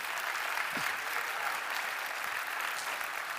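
crowd, audience clapping hands

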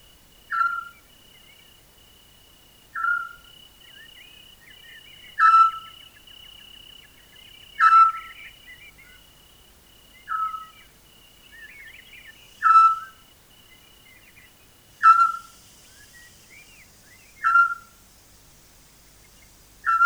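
bird, eurasian scops owl calling

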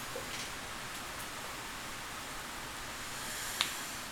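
nature, rain falling outside

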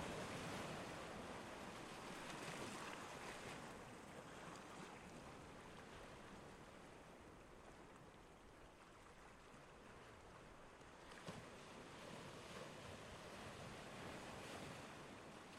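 nature, ocean waves

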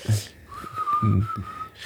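signal or alarm, whistle blown

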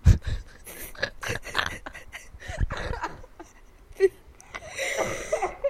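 human body sound, coughing fit

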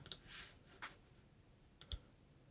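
machine, computer mouse clicking

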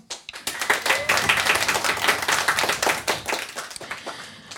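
crowd, audience applause

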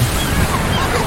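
nature, ocean waves

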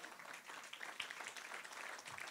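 crowd, audience clapping hands

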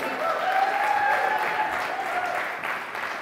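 crowd, audience clapping

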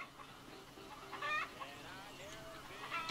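bird, chickens clucking

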